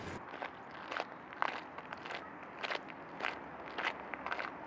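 footsteps walking

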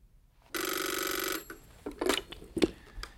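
telephone ringing

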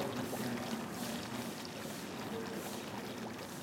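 fountain splashing

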